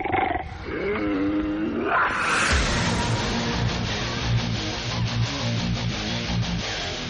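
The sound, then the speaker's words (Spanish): A big cat roars loudly in a radio promo for the Goya Deportivo sports show, a deep throaty growl that rises and falls over the first two seconds, then gives way to a dense, sustained rumbling roar that continues to the end. No one speaks. “El cuadrante ensorbece con el rugido del felino.”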